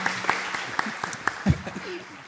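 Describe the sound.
Brief, scattered applause from a small audience, the claps sparse and fairly quiet, with a voice briefly talking over them partway through.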